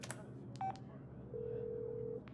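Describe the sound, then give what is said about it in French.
A mobile phone keypad beeps once, briefly, then a steadier electronic tone holds for nearly a second. Both are fairly quiet over a low, constant background hum, with no talking. “Elle se sent si sûre d'elle qu'elle fouille dans son sac et en sort son téléphone portable.”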